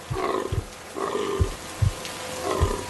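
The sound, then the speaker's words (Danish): A young deer, hit by a car, whimpers: three strained, tonal cries rise and fall at a steady pace, each followed by a low, breathy grunt. No one speaks. “Den lille hjort piver, og hun er nødt til at sætte dyret ud af sin lidelse”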